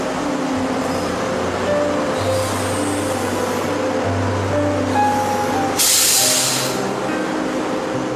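A train idles at a station before departure: a steady low engine rumble with droning hum tones, then a loud burst of hissing air partway through. No one speaks.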